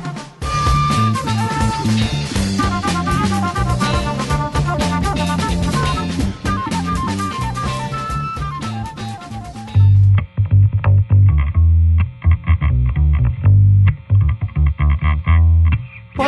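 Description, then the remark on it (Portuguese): A loud, distorted, effects-heavy intro jingle with dense bright melody and pounding bass for about ten seconds, then it turns duller and bass-driven with choppy beats. No one speaks. “E o podcaster de hoje você vai reconhecer a voz dele e gostar da voz dele logo após a vinheta.”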